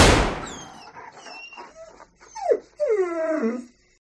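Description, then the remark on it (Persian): Eshraghieh's dog whimpers and whines in a series of high, wavering cries, rising to a louder, drawn-out whine near the end, after a sudden sharp bang at the start. “وقتی اومدن تا اشراقیه رو ببرن اشراقیه نگران سگش بود دیگه کسی نبود ازش نگهداری کنه”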